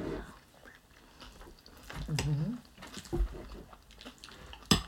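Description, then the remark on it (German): Eating muesli with orange: after a last stir, a spoon clinks against a bowl a few times between soft crunchy chewing and biting, with a brief murmured voice. “ich muss noch einen letzten Rührer machen und dann kommt der erste Happen.”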